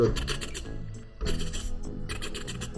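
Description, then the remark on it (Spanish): A voice imitates a rotary phone dial being turned to dial a number, making two fairly loud bursts of raspy, ratcheting whirr separated by a brief pause, with no other sounds around it. “Es un teléfono que, que tienes que darle vuelta al disco para que para marcar el, número.”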